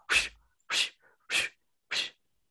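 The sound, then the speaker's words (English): A voice imitates a whooshing rustle with four breathy, hissing bursts at an even, steady pace, with short silences between them. “It was like whoosh, whoosh, whoosh.”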